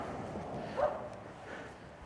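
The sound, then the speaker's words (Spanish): A dog barks once, a short faint bark over a low background hum, followed by a softer second bark about a second later. “Se tienen Pistón y ese perro.”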